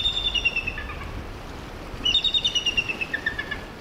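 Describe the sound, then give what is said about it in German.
Two bursts of a thin, high-pitched eagle call: rapid descending chitters with a faint, steady rush of background noise between them, no voices present. “Weil der Ruf des Originaladlers offenbar zu dünn klingt”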